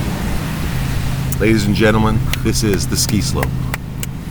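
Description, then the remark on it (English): A steady, low rumbling wash of Pacific Ocean waves at the Four Seasons Hualalai resort in Hawaii runs continuously in the background while a man speaks clearly. “are the sounds of the beautiful Pacific Ocean here in Hawaii.”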